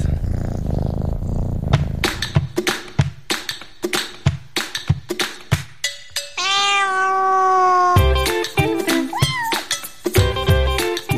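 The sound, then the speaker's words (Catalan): A low, rumbling purr opens, then a cat meows repeatedly over sharp rhythmic taps, including one long drawn-out meow that wavers in pitch, all fairly loud. “em digueu que no és música de vídeos de gats, d'aquests que tant ens agrada veure a internet.”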